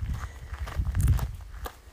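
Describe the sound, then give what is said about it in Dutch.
Footsteps of someone on a short walk outdoors as the sun is nearly setting, a steady series of soft crunching steps about three per second over a low rumbling background, moderately loud and with no talking. “Ik, eh, mijn wandeling zit er ook op.”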